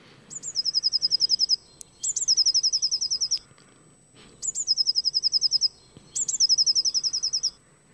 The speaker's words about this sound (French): C'est un, c'est un classique euh, des jardins. Il est, il est bleu. c'est, c'est une mésange bleue. Ah oui, j'aurais dû trouver on le compare à une sonnette de vélo pour, pour se mémoriser.